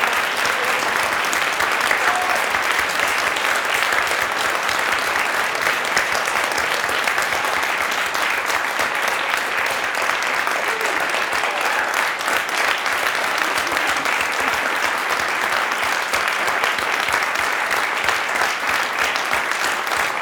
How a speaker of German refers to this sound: Vielen Dank. Applaus